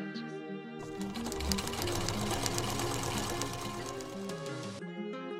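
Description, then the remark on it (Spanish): A sewing machine sewing dresses runs steadily for several seconds, its rapid mechanical whir and clatter fairly loud, starting and stopping abruptly with a faint hum before and after. “A las seis de la tarde, cuando el sol despuntaba sus últimos rayos, yo todavía seguía con mi máquina de coser, haciendo vestidos para las muchachas.”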